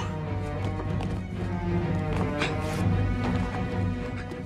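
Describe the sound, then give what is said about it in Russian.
Galloping white horses, ridden by a father and his wife each holding a daughter, pound their hooves in a quick, steady rhythm beneath a loud, swelling orchestral score, the hoofbeats partly buried in the music. “Он и его жена садятся на белых лошадей.”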